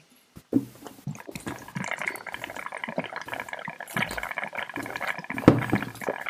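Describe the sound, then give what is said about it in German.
Desperados beer being poured and drunk after a toast: after a brief click, a steady gurgling, splashing liquid sound runs for several seconds with swallowing noises mixed in, and no one speaking. “Unser Bier, oh. ein auf High Society Desperados.”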